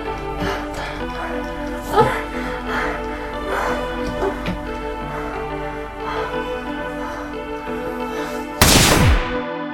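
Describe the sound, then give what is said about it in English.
A steady, droning musical bed runs throughout with a few soft thumps, then near the end a single loud, sharp gunshot bursts out in a house, leaving a brief ringing decay. “Just over an hour passed before gunshots rang out to the second level of the house and killed the silence that had surrounded them all.”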